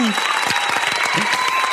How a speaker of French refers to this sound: Euh, et je t'applaudis. Ce qui ne veut pas dire que tu as besoin d'applaudissements pour être encouragé. Ça veut juste dire que j'ai vraiment envie de t'applaudir.